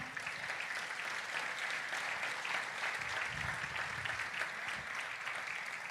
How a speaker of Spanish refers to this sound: Dale un aplauso al Señor.